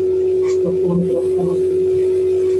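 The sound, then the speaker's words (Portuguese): A steady electronic hum drones throughout a call line, with muffled, echoey voices talking faintly underneath, giving the connection a noisy, reverberant quality. “Desculpa, estás a fazer um pouco de eco.”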